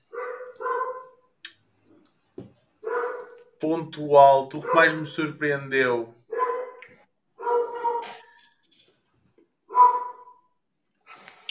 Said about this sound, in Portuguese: Só ouvi os meus cães, não está? Algum um cão Não, são vários, ou três.